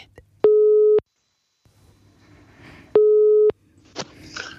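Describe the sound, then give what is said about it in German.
Two loud, steady ringback tones of an outgoing phone call, each about half a second long and spaced a couple of seconds apart, with faint background noise and brief murmurs in between. “Klingelt.”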